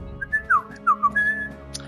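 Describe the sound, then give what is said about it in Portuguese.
A person whistles a short, bird-like run of chirps and warbles, several quick rising and falling notes in succession, fairly loud with no talking over it. “tem que assobiar igual um passarinho.”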